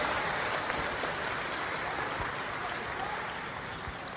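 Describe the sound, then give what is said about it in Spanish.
A crowd applauds steadily for all the new entrepreneurs, a dense wash of many hands clapping at an even level for several seconds without any voices standing out. “Un aplauso a todos los nuevos empresarios.”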